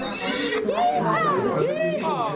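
A horse whinnies loudly, a single drawn-out neigh with a wavering, rising and falling pitch that fills about two seconds.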